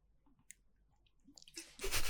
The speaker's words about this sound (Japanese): え、ペチャペチャだって、金魚を口に飼ってる。